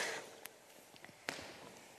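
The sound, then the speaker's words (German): Soft, irregular footsteps crunch and thud a few times, quiet and unhurried, with no one talking over them, as a person walks behind another, stepping in their footprints. “ja, könnt schon hinter mir, weisst, in meinen Fußabdrücken, dann wäre es nicht ganz so mühsam und streng.”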